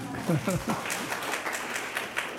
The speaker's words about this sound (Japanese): 二つ目はですね私の妻が生まれたんです。「アーメン隣の部屋におります」拍手してあげてくださいと